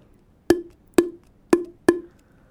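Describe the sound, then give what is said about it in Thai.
Four hollow, resonant pops from a PVC pipe struck vertically against an open palm, evenly spaced about half a second apart, each short with a quick ringing decay, clear with no talking. “มีเสียงครับ มีเสียงดังโป๊ะะนะครับ แสดงว่าตอนนี้เนี่ยมันมีความเป็นไปได้แล้วครับ ที่จะกลายเป็นเครื่องดนตรี”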